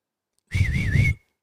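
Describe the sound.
A single loud, wavering whistle lasting about half a second, sharp, over a low background rumble, as a person in a car driving along Sturegatan whistles to friends sitting at an outdoor restaurant. No one speaks.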